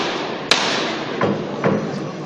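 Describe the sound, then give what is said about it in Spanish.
A capataz's metal knocker strikes a procession float carrying a crucified Christ, giving the call to bring it out: one sharp, loud rap, then two softer knocks spaced about half a second apart, over a steady wash of outdoor crowd noise. “Este momento en el que el, clavo de, los pies del Cristo no se puede ver debido a, ese monte de claveles es cuando se decide que, ya es suficiente y se va a proceder pues a la, a la salida de, de este crucificado Escuchamos la llamada.”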